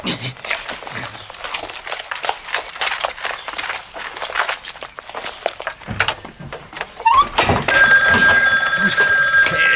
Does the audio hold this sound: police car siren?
no